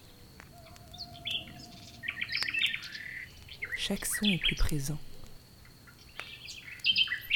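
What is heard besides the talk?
night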